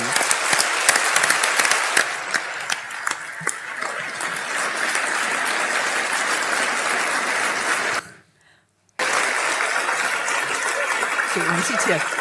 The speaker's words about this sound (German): Ähm, oh, es geht weiter, minutenlang weiter, diese, ähm, diese Jubeln.